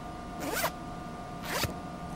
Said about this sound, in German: Er geht zum Pissoir und öffnet den Reißverschluss.